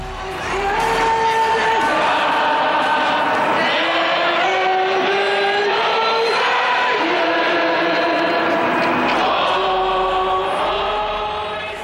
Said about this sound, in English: On October 27, 1995, thousands of ordinary citizens jammed a large urban square in downtown Montreal. The sea of people waved Canadian and Quebec flags and loudly sang along to the national anthem.